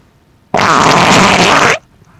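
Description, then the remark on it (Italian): A sudden, loud, sustained fart lasting just over a second, broad and raspy with a sharp onset and abrupt end, with no talking. “Invece no, è stata una, una, una bronza veramente improvvisa, così ho fatto solo in tempo a registrarla eh, però no, assolutamente.”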